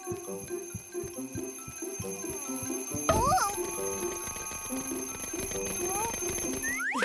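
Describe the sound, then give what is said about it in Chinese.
An alarm clock goes off loudly, a steady rattling ring that starts abruptly after a few seconds of rhythmic ticking and bouncy tones, then keeps going to the end. “如果凯特需要起床去关闹钟的话，那他肯定会醒的。”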